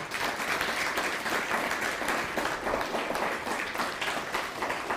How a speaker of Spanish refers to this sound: Amén, amén y amén. Dele un fuerte aplauso al poderoso.